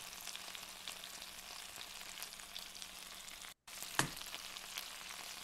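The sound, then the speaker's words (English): Salmon fries in a pan with a steady, crackling sizzle, broken by a brief dropout and one sharp pop, with a few smaller spits scattered through. No one speaks. “Salmon.”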